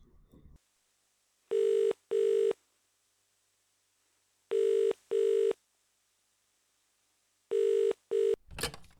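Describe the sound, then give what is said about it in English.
A telephone ringback tone heard through the line: three pairs of short buzzing rings separated by silence, ending in a sharp click as the call is picked up. No one speaks. “While the discussion went on, I decided to don my old investigative journalist hat and make a few phone calls.”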